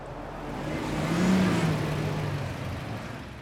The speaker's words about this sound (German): Felder umgeben den Ort, der durchzogen ist von einem grauen Band, der Michaelstraße. Hier rattern jeden Tag tausende Autos und Lastwagen durch, auf dem Weg zur Auffahrt auf die Autobahn 4, auf dem Weg nach Köln, Aachen, Rotterdam und Antwerpen.